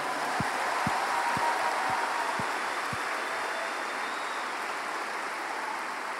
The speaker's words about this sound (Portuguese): Se você orou isso com fé, aplauda Jesus onde você está.